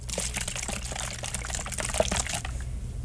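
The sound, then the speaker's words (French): A bottle of Coca-Cola being shaken again, its liquid sloshing and fizzing in a steady, busy churn for a few seconds, fairly loud, with no one talking. “Je vais rebrasser.”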